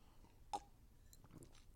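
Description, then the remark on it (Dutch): A quiet sip of water: one short sharp click of mouth or glass, followed by a few soft swallowing and mouth noises, with no talking. “Even een slokje water, want … krijgt een droge keel.”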